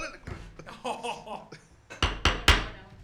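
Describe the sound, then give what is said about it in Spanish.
Three sharp, loud hammer blows strike a table in quick succession, after a stretch of muffled voices talking in the background. “No le peguen a la mesa.”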